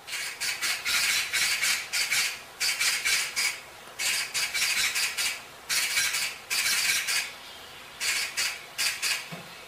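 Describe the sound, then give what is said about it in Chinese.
A magpie gives harsh, hoarse rattling calls in five bursts of rapid, raspy chatter, each a quick string of scratchy notes separated by short pauses, loud and unaccompanied by any voices. “它的叫声呢，都是比较单调单一，然后也是非常洪亮响亮的声音，但是音质呢，也都是沙哑沙哑的感觉哦。”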